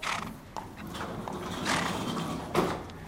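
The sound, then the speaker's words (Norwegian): A horse shifts and moves about in a stable, with rustling, soft thuds and a short breathy snort, with no talking. “er visstnok en stødig hest.”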